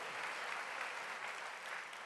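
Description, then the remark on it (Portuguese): An audience applauds steadily to give glory to God, a dense wash of many hands clapping at an even, sustained loudness for the whole stretch, with no voices standing out. “E aplauda a glória dele por isso.”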